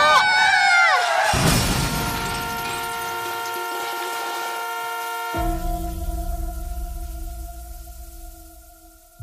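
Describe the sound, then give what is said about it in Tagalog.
The horn of a huge, speeding truck blares continuously on a highway while a sudden crash with scattering, shattering debris hits early on as the truck runs over a boy; the horn keeps sounding over a deep engine rumble before fading out. “Nasagasaan si Boy ng napakalaking truck na mabilis na humarurot sa highway.”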